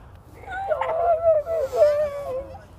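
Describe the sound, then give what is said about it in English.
A child's voice imitates a dying donkey with one long, strained, wavering wail that rises and sags in pitch for about two seconds, moderately loud, with no speech. “The uh, dying donkey.”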